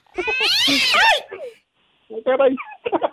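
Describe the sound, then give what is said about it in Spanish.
A cat named Satanás gives a loud, drawn-out meow with rising and falling pitch, followed after a short pause by brief bursts of talking or further vocal sounds. “aquí está el gatito Satanás.”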